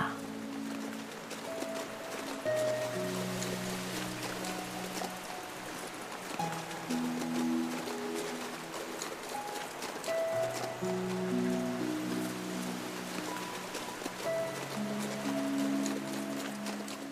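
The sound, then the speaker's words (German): Steady running water of a large river rushes continuously at moderate volume, with soft sustained musical tones drifting underneath throughout. “Das Geräusch des fließenden Wassers und das Schauspiel der Natur.”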